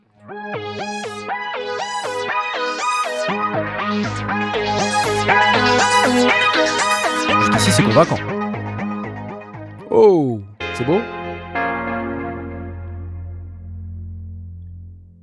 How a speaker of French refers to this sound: C'est du virtual analogue avec de la FM, des filtres, euh, des wavetables, donc il y a plusieurs synthèses différentes.